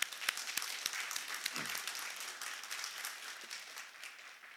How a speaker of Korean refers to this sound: 우리 하나님께 영광의 박수 돌리기 원합니다.